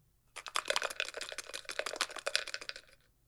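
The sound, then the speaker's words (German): A slip of paper rustles as it is drawn out of a box, made as ASMR, a dense run of crisp crackling and scratchy clicks lasting a couple of seconds, with no voices. “Neuer Zettel?”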